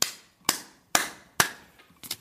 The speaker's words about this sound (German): spende großen Applaus und äh, ja, gratuliere ganz herzlich auf diesen Wege